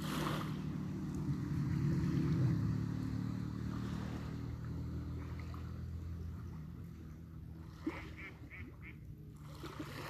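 A motorbike engine drones past, its low rumble swelling within the first few seconds and then slowly fading away, while a few bird calls chirp near the end.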